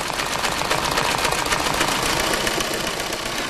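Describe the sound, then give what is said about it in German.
An embroidery machine at the embroidery firm Jeschke stitching Saint Florian for a fire brigade flag in the needle-painting technique, a steady, rapid mechanical clatter with a fine buzzing rhythm that holds at an even, fairly loud level throughout, with no voices. “Dominik lernt Maschine sticken.”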